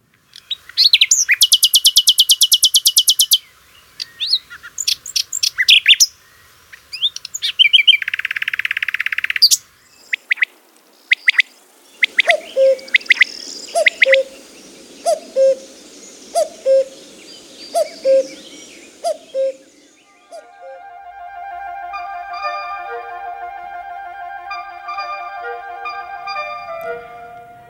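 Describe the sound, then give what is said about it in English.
Three bird calls in turn, with no talking: a rapid, varied nightingale song of trills and whistles, then a quail's evenly repeated short calls, then a steady, tonal cuckoo call. “Well, why don't we listen to actual bird calls? First, the nightingale, then the quail, and then the cuckoo.”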